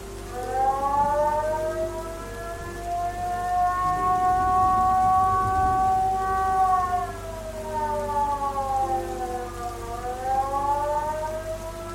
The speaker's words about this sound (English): That's not good. Tell me that's a tornado warning.